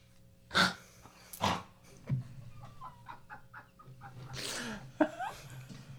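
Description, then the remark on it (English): A person imitates a pig with loud, harsh nasal snorts: two quick bursts close together, quieter grunting sounds after them, then a longer drawn-out snort and a final short one. “Is it the pig farm in here?”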